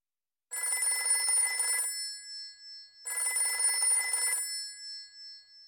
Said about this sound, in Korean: 한 시간이 지나서야 전화벨이 울렸다.